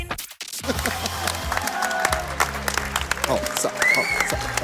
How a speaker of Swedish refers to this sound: Vilket jubel! Vilket jubel!